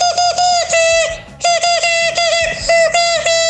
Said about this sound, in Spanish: Con, una silba- con un silbato lo están haciendo.